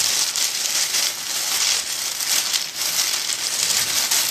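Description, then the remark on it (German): Dense, continuous crinkling and rustling of a particularly stiff material, steady and fairly loud with bright crackly texture and slight surges, used as a foley stand-in for a child running through a cornfield. No voices. “Man kann es das ist jetzt besonders hartes, das kann man dafür nehmen, wenn ein Kind irgendwie durch so ein Maisfeld läuft.”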